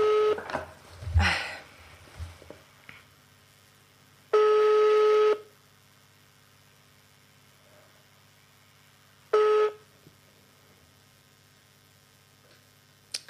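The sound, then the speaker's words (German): A phone call being placed: a brief flurry of dial clicks and tones, then two long steady ringback tones with a pause between them, loud against an otherwise quiet line. “Es klingelt.”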